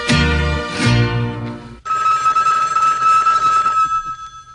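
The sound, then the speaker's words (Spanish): A telephone rings for an incoming call made to invite someone out for coffee: a loud, bright tonal burst gives way to a steady, shimmering electronic trill that holds for a few seconds, with no voices. “La llamada es nada más para invitar.”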